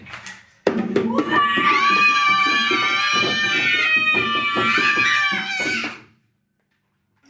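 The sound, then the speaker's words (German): Several children's voices let out a loud, sustained roar together, imitating a fierce beast. The shout holds for about five seconds, wavers in pitch, then cuts off into silence. “winzige Maus an und ließ ein gewaltiges Gebrüll verlauten.”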